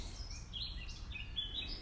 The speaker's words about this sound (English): So there may be uh, different bird song next time.